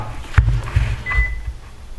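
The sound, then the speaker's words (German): A brief, faint electronic beep from an Olympus DM770 handheld audio recorder signaling it has finished, a single thin high tone after a soft handling thump, over low rumbling background noise. “das war gerade das Piepen des Olympus DM770. Er ist fertig.”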